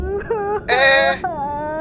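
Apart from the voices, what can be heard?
woman crying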